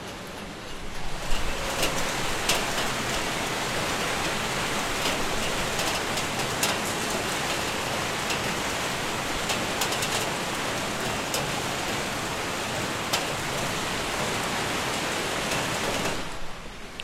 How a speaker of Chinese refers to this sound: 呃，这几天的话，深圳这边的话，天气非常的热，然后终于下雨了，而且是受台风影响，现在的话下起暴雨来，大家应该可以听得到。给大家听一下，